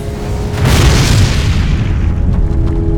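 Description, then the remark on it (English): A wooden barn explodes into wood and fire as a rocket comes shattering out of its roof: a sudden heavy boom erupts after a brief lead-in, then a deep roaring rumble with scattered crackle slowly thins out over a few seconds. No voices. “In an instant, the barn was reduced to a shockwave of wood and fire, blasting in all directions as the rocket came shattering out of the roof.”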